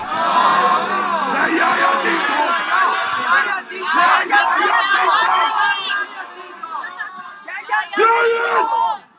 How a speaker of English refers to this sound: anyway, who wants to hear a Eurovision song? Not me.